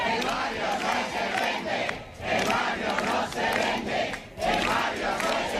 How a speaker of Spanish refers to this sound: Y lo hacen al grito del barrio no se vende, el barrio se defiende.